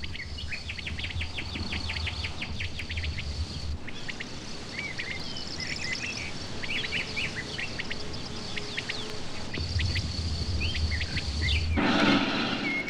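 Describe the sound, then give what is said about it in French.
Common quail calls repeat among a busy chorus of other birds chirping in a flowering meadow, with steady outdoor background noise and no voices. “Dans les prairies en fleurs, on perçoit, de plus en plus rarement hélas, le tectérec des cailles.”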